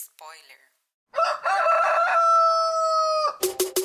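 A rooster crows once, loud, a long drawn-out cock-a-doodle-doo that holds steady before breaking off, preceded by a brief squawk and followed by a few quick clucks.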